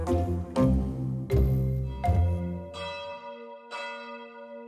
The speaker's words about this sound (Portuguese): Os pensamentos negros foram interrompidos pelas badaladas de um sino.